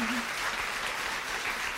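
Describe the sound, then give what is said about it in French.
A crowd applauds steadily, a dense, even patter of many hands clapping at once, with a brief murmur of voices at the start. “et euh, j'aimerais bien qu'on puisse l'applaudir, s'il vous plaît.”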